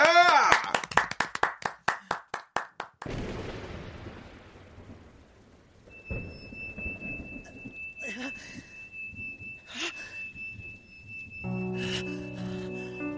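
A rapid run of loud, evenly spaced hand claps for a few seconds, followed by a wash of crowd applause and cheering that gradually fades out.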